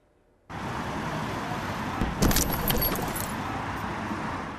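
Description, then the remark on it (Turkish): Steady street traffic noise in Diyarbakır, Turkey, then a sudden loud impact as a minibus, swerving to avoid the vehicle ahead, crashes and hits a pedestrian on the sidewalk: a burst of clattering, jangling metal and debris lasting about a second before the roadway rumble continues. “Diyarbakır'da bir kaza anı.”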